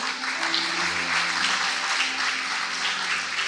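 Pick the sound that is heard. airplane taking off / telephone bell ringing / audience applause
audience applause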